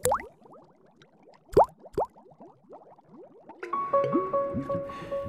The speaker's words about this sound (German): Der Bubbelmuck blubbert aus Wanne und Brunnen.